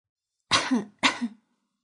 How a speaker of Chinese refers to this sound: 咳嗽声突然响起。